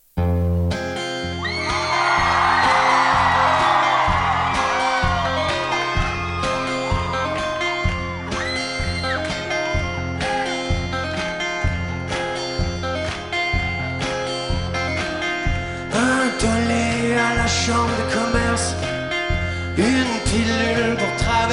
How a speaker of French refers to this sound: à Montréal et à Québec, mais le concert commence exactement comme ça, et je prends une énorme claque dès la première explosion de guitare.